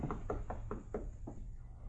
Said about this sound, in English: Finally, he heard the prisoner in the next cell wake up and break into a fit of coughing bat rapped gently on the log partition.